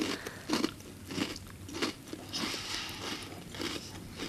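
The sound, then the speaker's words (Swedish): Crisp crunching of crackers with a liquorice-flavored filling in the middle being bitten and chewed during a taste test, a series of sharp crackly bites in a steady rhythm, with no talking. “Ja, då kan jag säga så här det smakar kex. Men så är det någonting i mitten.”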